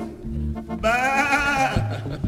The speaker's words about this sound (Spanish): Y tenemos también animales exóticos traídos del lejano oriente Miren la cabra zurda verde blanca del Himalaya.